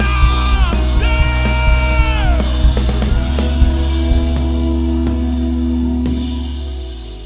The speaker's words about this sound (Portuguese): Eu preciso de alguém que dê um grito de glória.